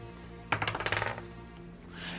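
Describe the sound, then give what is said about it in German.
A die is rolled onto a hard table surface during a game to see whether a shotgun shot hits, bouncing in a quick rattling series of about ten decaying clicks before settling, fairly loud, with no voices. “du musst jetzt eine 10 oder weniger würfeln, damit du den triffst”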